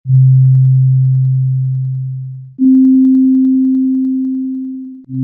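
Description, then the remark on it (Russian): A loud, steady pure tone plays for a few seconds, then jumps an octave higher and holds, before briefly dropping back to the lower note. It demonstrates a string's first and second harmonics, where half the string vibrates at twice the frequency of the whole string. No voices. “Это называется вторая гармоника.”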